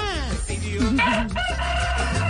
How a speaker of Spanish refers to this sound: Uy, cantó el gallo